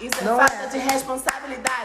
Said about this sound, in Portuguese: Olha esse barulho que vocês ouviram, tapa na minha cara.